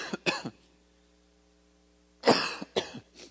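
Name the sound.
coughing fit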